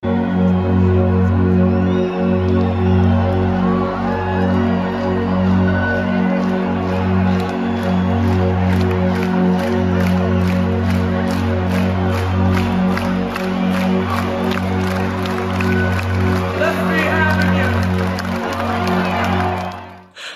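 A large concert crowd at Carrow Road cheers loudly and continuously, with whoops, shouts and scattered clapping over a steady low rumble, holding for about twenty seconds before cutting off.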